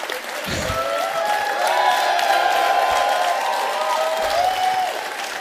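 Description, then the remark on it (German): Sustained audience applause, a dense wash of clapping with some cheering and whistles mixed in, steady and loud for several seconds without anyone speaking. “Normalerweise habe ich ihm dann diesen Applaus erst am Ende.”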